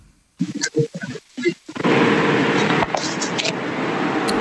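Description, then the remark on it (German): Brief bursts of a voice give way to a steady, muffled rumble of a car on the move, from a caller driving in a car who says nothing, heard through a narrow telephone line and continuing unbroken to the end. “Irgendwer ist unterwegs im Auto und sagt nichts.”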